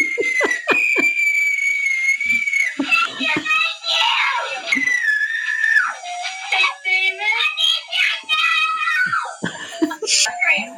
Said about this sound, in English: like literally what is that scream? and like, how did you deal with that?